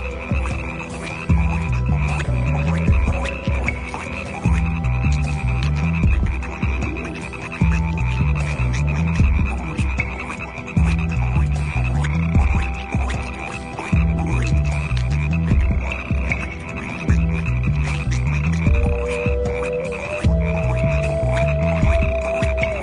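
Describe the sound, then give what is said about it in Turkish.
A dense chorus of many frogs croaking at once, loud, with repeating pulsed calls in a steady rhythm over a constant buzzing din, and no voices. “Kurbağalar sokakları evleri doldurmuştu.”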